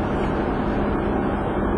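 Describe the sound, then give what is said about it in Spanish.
Steady rumble of road noise from inside a vehicle driving on a highway in typical late-afternoon traffic, a continuous low drone with a hiss of traffic and wind around it and no voices. “Un poquito de tráfico típico a esta hora de la tarde.”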